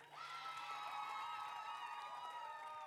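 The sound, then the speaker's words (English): An audience applauds and cheers for a newly engaged woman for about three seconds, a steady wash of clapping mixed with overlapping whoops and high-pitched shouts, loud and sustained throughout. “So, first, let's give her an awesome round of applause, real quick.”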